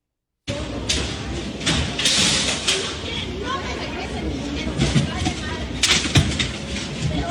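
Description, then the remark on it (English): Repeated loud crashes of flat screen monitors thrown and smashed on a hard floor by a woman destroying workstations, several sharp impacts spaced irregularly, with a murmur of voices and commotion continuing underneath. “Just throwing flat screen monitors on the floor, just smashing them.”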